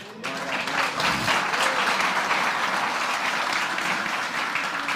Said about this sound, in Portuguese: Vamos aplaudir o pastor